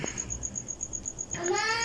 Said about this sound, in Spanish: Perdón por el ruido de fondo, aquí andan los chaparros.